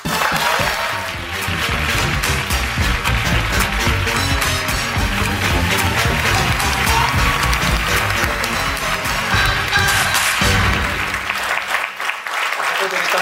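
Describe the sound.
Sustained applause from a studio audience, including some Conservatives, welcoming Gérard Deltell, MP for Louis-Saint-Laurent: dense steady clapping that stays loud for over ten seconds before tapering off at the end, with a few indistinct voices mixed in.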